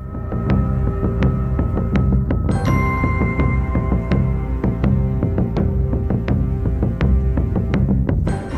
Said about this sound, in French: Également, le rythme du galop de cheval dont nous avons parlé est repris également avec un tambour et une basse en le ralentissant légèrement. Écoutez plutôt.